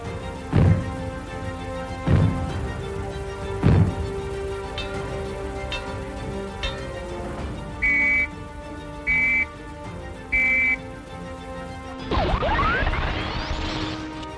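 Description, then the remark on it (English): Civil defence fallout warning signals: three heavy, booming bangs spaced evenly apart, then a pause and three short, shrill whistle blasts, all sounding alone before a noisier, swirling sound at the end. “If the fallout warning sounds are heard, they will be like these.”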